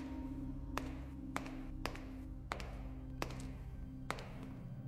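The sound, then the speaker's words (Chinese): Six sharp footsteps tap out at a slightly uneven, unhurried pace over a steady low hum, each step a crisp, clicking impact with no voices present. “又一阵脚步声响起，就在他身后，近了。”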